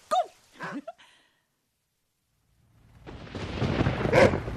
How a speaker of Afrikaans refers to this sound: Ag nee, Bixie. Moenie vir my sê jy blaf vir die weer nie. Toe, stil nou.